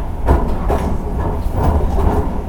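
A Hankyu 9000 series electric train rumbles steadily, a low continuous roar with periodic rhythmic clunks of wheels over rail joints, loud and unbroken, with no voices present.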